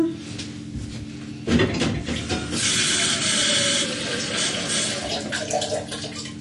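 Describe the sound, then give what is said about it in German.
After a short clank, tap water gushes steadily into a cooking pot for cooking pumpkin with broth, a continuous rushing splash that holds for several seconds with a slight shift in tone as it fills. “So, dann brauchen wir ein bisschen Wasser.”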